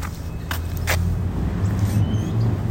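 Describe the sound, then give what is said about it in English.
A motorbike engine drones past, a steady low rumble that swells slightly toward the end, with a couple of brief sharp clicks early on and no talking. “Wait until that motorbike's gone.”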